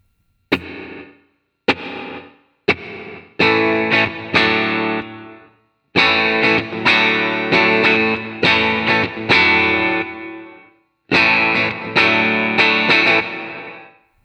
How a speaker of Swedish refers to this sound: Vi kör nästa som är då eh, gated reverb som låter så här.